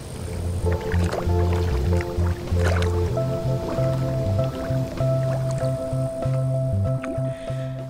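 Water sloshes and gurgles steadily, softly beating against glass, with soft squishy bubbling and low rumbling tones running throughout and no one speaking.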